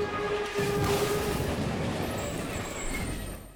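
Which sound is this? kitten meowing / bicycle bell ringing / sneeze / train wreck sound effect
train wreck sound effect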